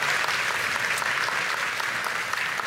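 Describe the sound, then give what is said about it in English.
A crowd applauds steadily, cheering on guests about to tell their stories of faith and freedom, a dense wash of many hands clapping at once, loud and sustained for the whole stretch with no voices standing out. “And uh, so, are you cheering for them to tell their stories of faith and freedom?”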